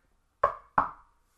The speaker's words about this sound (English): and then one of the werewolves goes, "Who's there?" And I was like, "Oh, it's a knock, the knock knock joke," and then knock knock, who's there? Totally missed that.